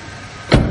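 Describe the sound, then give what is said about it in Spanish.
A car door shuts with a single solid thump over a low background rumble as a man gets into the car after a chauffeur opens the door for him; brief, with no voices. “Philip sube al coche.”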